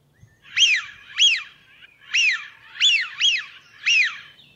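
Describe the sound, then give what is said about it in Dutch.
A smew duck, recorded by Peter Boesman, gives a series of six short, rising-and-falling calls at a steady, slightly uneven rhythm, clear against a quiet background with no talking. “En dan gaan wij nog even één keer luisteren naar het geluid van de smint.”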